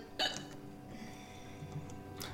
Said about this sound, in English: so cute when you burp. That was a hiccup.